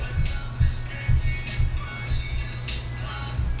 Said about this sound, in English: Yeah, these kids are fucking stomping on their ground.